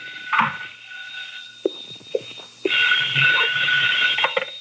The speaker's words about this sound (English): I left the shop a little after 11 and went to my apartment to call in a report on this phase of the deadlock. My phone was ringing when I got there.